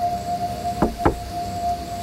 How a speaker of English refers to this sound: two quick knocks that sounded more like a heartbeat than knuckles on wood.